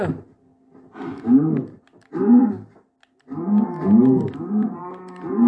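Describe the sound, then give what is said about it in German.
Several cows and calves moo in overlapping calls, low drawn-out bellows repeating one after another, with a short quiet gap midway and a steady faint hum underneath, while they are being fed wheat. “Da hinten sind noch mal ein paar Kälber.”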